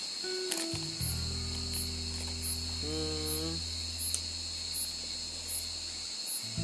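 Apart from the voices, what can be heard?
cicadas buzzing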